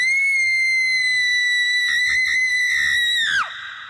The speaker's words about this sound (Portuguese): Eu tenho uma mania de gritar do nada.